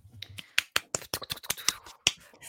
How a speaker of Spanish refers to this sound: Aplausos.